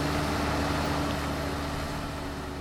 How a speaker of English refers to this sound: Now we know it is a tractor and it is in Sampa's orchard